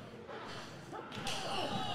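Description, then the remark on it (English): A single heavy, sharp thud of a strike to the solar plexus lands about midway, over a steady wash of noisy background. “Just knocking the air right out”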